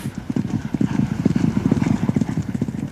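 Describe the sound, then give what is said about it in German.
A single horse gallops over the turf of a racetrack in a 2,000-metre race, with fast, rhythmic hoofbeats drumming steadily on soft ground, loud throughout, with no voices. “Und genau ein Pferd galoppiert übers Geläuf.”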